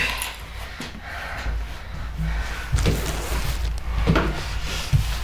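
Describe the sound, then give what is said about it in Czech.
A set of three keys, the larger one for a lock, is pulled out and handled, with several sharp metallic clicks and jingles over a low rustling rumble. No one speaks. “Vytáhneme klíče od Božen, od stovečky Boženovic, od Božky z Božkova.”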